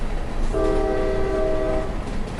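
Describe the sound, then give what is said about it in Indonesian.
A loud, steady locomotive whistle sounds for about a second and a half as a first-class train departs a station, over a constant rumble of rail noise, with no voices present. “Peluit lokomotif berbunyi nyaring dan kereta kelas 1 berangkat.”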